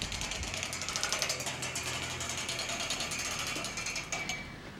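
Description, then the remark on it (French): A stick is dragged along city railings, recorded in London in 2004, producing a rapid, steady stream of rattling clicks, with a faint hum of street noise underneath and no voices. “En arrivant à une nouvelle ville, ramassez un bâton, passez-le sur son architecture et écoutez la musique de la ville.”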